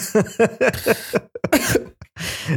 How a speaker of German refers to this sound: Merkt ihr, wie gesund dieses Husten ist. Da kein Schleim, nichts, da rasselt nichts. Ich habe richtig gesunde Lungen